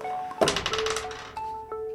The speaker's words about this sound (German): Bereit? Ja, einmal würfeln. Das klingt aber nicht mehr spektakulär.